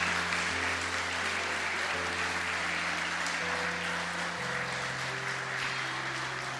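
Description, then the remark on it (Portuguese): An audience applauds steadily to glorify the name of the Lord Jesus, a dense wash of clapping that stays loud and even for several seconds, with sustained organ or keyboard chords shifting in pitch underneath. “Se você crê, aplaude e glorifica o nome do Senhor Jesus.”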